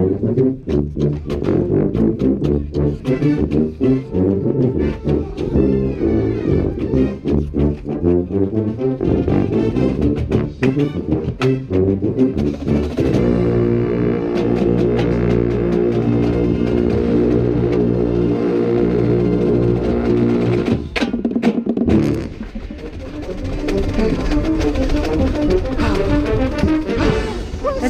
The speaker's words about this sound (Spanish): No sé qué hay aquí, a ver, déjenme ver este que es. Una tuba. Ah, qué chingón suena esta tuba, ¿eh?